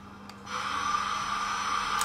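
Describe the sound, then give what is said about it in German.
A steady mechanical roar swells up after a quiet start and holds at a constant level, a sustained engine-like drone with a faint high whine running through it: aircraft engines in a flight simulator set to maximum thrust for takeoff after the parking brake is released. “Und dann 3, 2, 1, maximaler Schub.”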